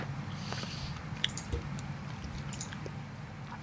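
Wet chewing and biting sounds with small crunchy clicks and squishes, steady and moderately loud over a low background hum, with no talking.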